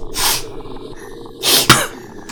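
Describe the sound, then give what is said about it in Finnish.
Two quick, breathy sniffles, one near the start and another about a second later, each a short hiss of air drawn through the nose, with no talking. “niiskaisee.”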